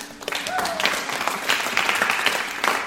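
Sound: audience applause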